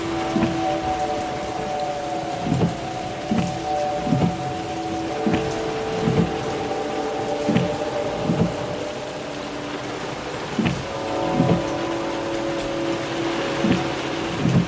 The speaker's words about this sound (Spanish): Llovía torrencialmente.